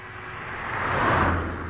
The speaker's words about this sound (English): Finally, a noise emerged from behind him, and Stephen took a sigh of relief to know he was not alone. The sound was that of a speeding car, which zoomed past very quickly